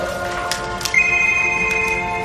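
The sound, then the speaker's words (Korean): A telephone drifting along on the water rings with a steady, high electronic tone. The ring starts after a few soft ticks and holds unbroken to the end, over a low, busy background hum. “어, 어디서 나는 소리지? 나한테 전화기가 없는데. 어? 아, 저기 전화기가 떠내려온다.”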